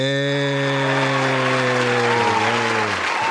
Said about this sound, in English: They must be applauding us because uh, they must know our moves.